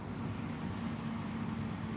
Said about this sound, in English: Yeah, you hear the hear the truck going by.